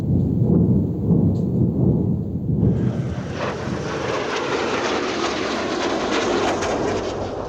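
A low, heavy rumble gives way after a few seconds to a loud, sustained roaring rush, like new air defense missiles launching during an air raid and continuing to blast off without pause.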